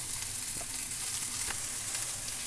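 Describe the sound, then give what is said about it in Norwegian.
Chicken sizzling steadily in a hot pan, a dense crackling hiss with scattered sharp pops and spits, at moderate loudness with no voices. “Da er kyllingen ferdig. Du tar den ut av panna og inn i ovnen.”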